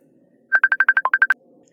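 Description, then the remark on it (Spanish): A father's phone rings with an incoming call from his frightened son: a quick burst of about ten short electronic beeps, one dipping lower in pitch, clear, then stopping; no one speaks. “Sonó mi teléfono y era mi hijo asustado.”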